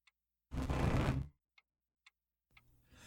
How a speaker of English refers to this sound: He pointed to a clock on the wall next to the table. The ticks were strong and loud. Hurry up, no time to waste, they seemed to say.